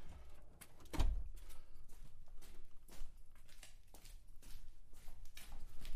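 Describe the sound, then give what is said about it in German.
A door that must be pulled rather than pushed is pulled open with a soft low thud about a second in, followed by faint scattered clicks and rustling. No one speaks. “die Tür ist offen. Muss man nur ziehen statt drücken.”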